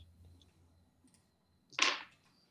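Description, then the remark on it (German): A short, sharp rattle of dice tumbling onto a surface, a clatter lasting a fraction of a second after a few faint clicks, with a low hum in the background; the dice are rolled for Composure and Persuasion in a tabletop role-playing game. “Würfel auf Composure und Persuasion.”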